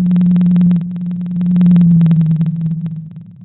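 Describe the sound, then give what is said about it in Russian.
Atlantic blue whale song: a deep, steady moaning tone held for several seconds, slowly swelling and fading, with faint crackling clicks scattered through it and no voices. “А, так, например, а, звучат синие киты, которые живут в Атлантике.”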